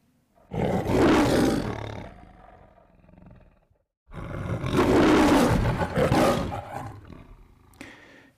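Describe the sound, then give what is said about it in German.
The MGM lion, a film studio logo, roars twice in close succession, each a loud, deep, rumbling growl lasting a few seconds, with a brief silence between them and no talking. “Das war der MGM-Löwe.”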